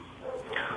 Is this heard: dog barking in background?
yes